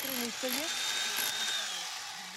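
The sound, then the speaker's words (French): A loud, steady mechanical roar as a volunteer digs a water pipe trench, with a thin high whine running through it and a voice talking over the noise. “Et là, il est en train de nous creuser une canalisation.”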